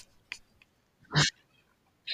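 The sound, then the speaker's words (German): A tomcat gives one short, loud meow-like cry in the middle, framed by a few faint clicks and rustles and a brief sharp noise at the end, with no talking. “Ich glaube, ich habe gerade deinen Kater gehört”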